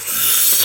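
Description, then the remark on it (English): A person mimics slurping spaghetti with one short, wet, airy sucking noise lasting under a second. It is fairly loud, with no other sounds around it. “can dogs slurp spaghetti? Do they have the ability?”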